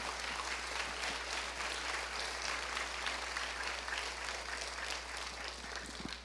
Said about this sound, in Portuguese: Pode aplaudir o Senhor.